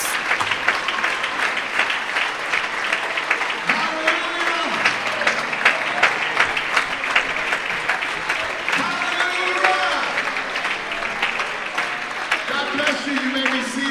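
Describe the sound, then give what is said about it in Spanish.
An audience applauds to God steadily for the whole stretch, a dense, continuous patter of many clapping hands, with raised voices calling out and cheering through the clapping. “Alguna persona aplauso a Dios y alabanza el nombre de Jesús.”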